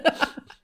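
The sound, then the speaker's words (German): A short, muffled sneeze: two quick, breathy bursts in close succession, followed by a faint trailing exhale. It is fairly quiet, with no talking. “Red doch einfach Gesundheit, weiter.”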